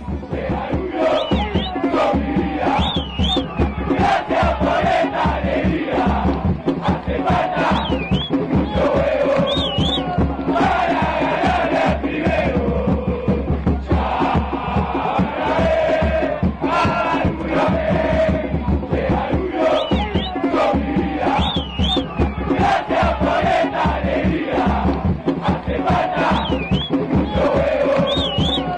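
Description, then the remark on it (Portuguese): Danubio supporters in the Curva de Maronhas stands sing one of their chants together, a loud, continuous mass of voices with rhythmic swells and a few shrill high notes cutting through. “Danúbio Sos Me Vida, diretamente é, da Curva de Maronhas, a torcida do Danúbio começa a cantar no som das torcidas.”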